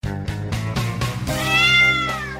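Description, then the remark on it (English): A loud cat meow with a drawn-out, bending pitch, preceded by a few quick rhythmic pulses. It sounds like a sound effect, with no talking. “I don't know what the sound cue is for that, Max. But can we try one? Cat spy.”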